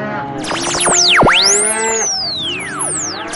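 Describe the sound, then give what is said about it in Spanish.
A mother cow bellows loudly for her weaned calf, long drawn-out moos rising and falling in pitch and overlapping one another, filling the whole stretch with no voices. “Es el reclamo de la madre.”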